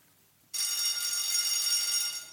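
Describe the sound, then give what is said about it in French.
After a moment of near silence, a school bell rings for midday, suddenly bursting into loud, bright, continuous metallic ringing that holds steady for about two seconds, alone with no voices. “Dès que la cloche retentit pour sonner l'ami du midi”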